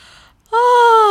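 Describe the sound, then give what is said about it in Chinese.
A voice imitates the yawn of a rabbit waking up in the story of the tortoise and the hare: a soft breathy intake, a brief pause, then a loud, drawn-out voiced 'aah' that sags slightly in pitch as it trails off. “这时，兔子醒来了。他打了个哈欠，说：“”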